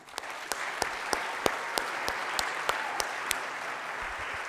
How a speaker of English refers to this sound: Great job, folks. One more round of applause.